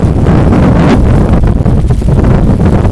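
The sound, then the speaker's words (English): Strong wind buffets a microphone on a beach, a loud, steady low roar with gusty rumbling throughout and faint surf-like wash beneath, no voices present. “So we're down on the beach. It's pretty windy down here.”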